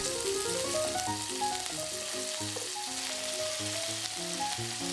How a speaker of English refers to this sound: Then add the bacon. Continue sauteing until the bacon is browned and it starts to grow more fragrant.